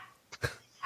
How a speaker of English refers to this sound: It's pandemonium at my house. All the dogs are fired up about it. That they are. I, I wasn't sure if that was a dog barking